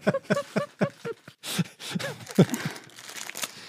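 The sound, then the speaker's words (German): Crinkly plastic snack packaging rustles in several short, uneven bursts, with brief voice-like sounds at the start before the crackling takes over. “Aber jetzt raschelt es tatsächlich.”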